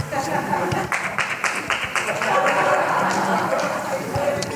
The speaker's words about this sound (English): that deserves another clap.